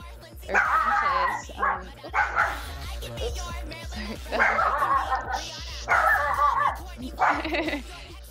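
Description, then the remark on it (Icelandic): Several dogs bark and yip in short, excited bursts at the Los Angeles home of party organiser Mappa Mota, some higher-pitched and whiny, recurring every couple of seconds over a low steady hum. “Þegar við náðum í skottið á partydrottningu Los Angeles borgar, Mappa Mota, var hún í fullu fjöri við að sapna tónlista á USB-kuppin sinn, heima með hundunum.”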